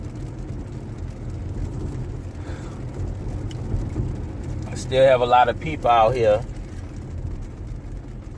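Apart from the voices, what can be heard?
passing traffic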